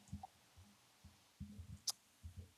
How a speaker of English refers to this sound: I'm typing like it in right now